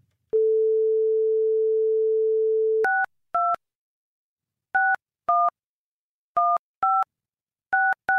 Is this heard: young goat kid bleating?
no